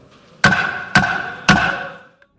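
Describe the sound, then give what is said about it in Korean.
Three sharp gavel strikes, evenly spaced about half a second apart, each a loud wooden crack followed by a brief ringing decay, with no voices; Speaker Park Byeong-seok's gavel adjourning a session of South Korea's National Assembly at midnight. “네, 망치 소리 두 번 들으셨습니다.”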